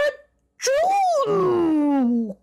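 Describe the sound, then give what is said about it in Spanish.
Someone mimics a bear's big, theatrical sneeze: a loud, drawn-out voiced cry that slides downward in pitch, with a breathy burst partway through, lasting about two seconds. “El ratón con sus bigotitos le hizo cosquillas al oso, que estornudó tan, tan fuerte.”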